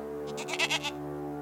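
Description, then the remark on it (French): A family's goat bleats in a short series of quavering, nasal pulses, moderately loud, over a steady low hum, then falls quiet. “Ils caressèrent une dernière fois leur chèvre avant de rejoindre la maison.”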